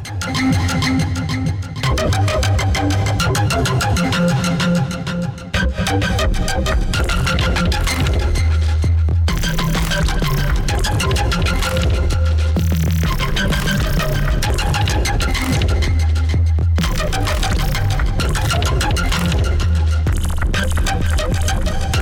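Ambient electronic music generated by the Endel mobile app in rhythm with the listener's heartbeat plays steadily with no voices, built on deep, throbbing bass tones that shift every few seconds beneath a dense, shimmering layer of synthesized texture.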